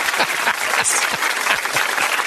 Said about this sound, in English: So let's give a hearty applause for some good old fashioned casual racism.